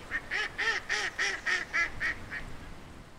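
A mallard duck quacks about eight times in a quick, steady series, the calls nasal, fading slightly toward the end, with no other sounds or voices.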